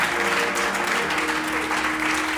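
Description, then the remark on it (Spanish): An audience applauds loudly for Jesus, a dense wash of many hands clapping at once, loud and sustained throughout with a faint steady tone running underneath. “Apláudale fuerte a Jesús en esta hora.”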